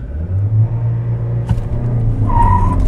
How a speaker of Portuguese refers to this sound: Vamos na função Sport para ver todo o torque, sentir todo o torque e potência deste motor. Apesar que nós não temos pedal shifters aqui, mas vamos lá.